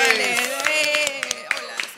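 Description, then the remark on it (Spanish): Scattered virtual applause: hand claps, maybe half a dozen sharp pops at uneven intervals, moderately loud over a steady voiced hum that runs through the whole moment, welcoming a guest. “Aplausos, virtuales.”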